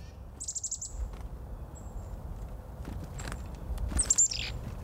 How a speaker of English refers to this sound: At no other time of the year are sounds so sharp the scolding winter call of the chickadee, wind howling through oaks or whispering through pines, the clarion call of wind chimes, piercing as the cold itself.